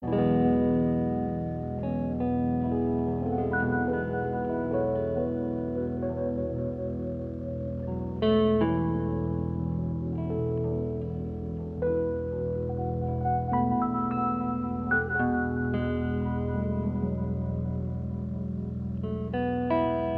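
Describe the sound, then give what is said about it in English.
A calm, slow late-1960s jazz recording plays on its own, with sustained electric tones and soft reverb drifting steadily at moderate volume, notes shifting gently every few seconds without any voices. “That's …, the title track from … record from the late 60s.”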